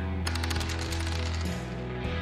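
A rapid burst of gunshot sound effects, loud and close, rattling in quick succession like automatic fire over a steady, dense rumble, then easing off toward the end; a shot passes close and hits the side of a building near someone's foot.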